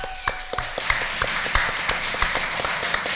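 An audience applauds steadily at the close of a livestreamed show, a dense wash of many hands clapping with sharper individual claps popping out irregularly throughout, at a moderate, even level with no voices.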